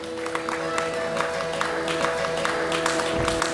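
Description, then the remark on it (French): An audience applauds the Alsatian duo Jean-Marie Hummel and Liselotte Ham, a steady, dense, even patter of many hands clapping at once that holds at a moderate level from start to finish with no voices standing out. “Ah vous pouvez absolument les applaudir.”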